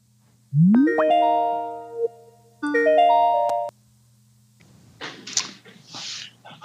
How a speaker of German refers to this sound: Also wir machen eine Skype-Session. Ich freue mich auf das Gespräch, also läuten wir ihm doch gerade an.